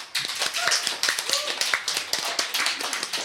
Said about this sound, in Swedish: En applåd för dem.